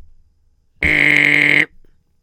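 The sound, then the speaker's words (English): A single loud, harsh intercom buzz, used to buzz a boss, lasting under a second, starting and stopping abruptly, with only faint background noise around it and no talking. “let me buzz in it.”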